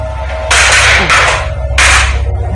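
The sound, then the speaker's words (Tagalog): A kitchen cabinet drawer holding salt and soy sauce bangs open with three loud, sharp, clattering bursts in quick succession over a low steady hum, and no one speaks. “nahulog oh, bumukas yung bumukas yung cabinet ng ano nung ito drawer ng mga ano ba ito, mga asin mga toyo galawan na yung mga drawer”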